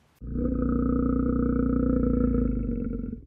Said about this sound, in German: Brummen kann also alles Mögliche bedeuten. Freude, Wut, Angst oder Traurigkeit. Für uns Menschen schwierig zu deuten, weil wir außer den Tierpflegern die Sprache der Bären nicht verstehen. Manchmal brummen sie und dann habe ich Angst.